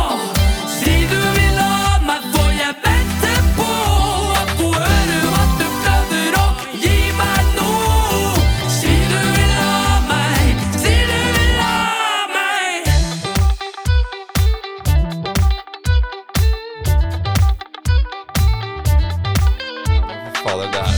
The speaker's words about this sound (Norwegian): Og det er rytme, og det er musikk, og det er liksom fine sangstemmer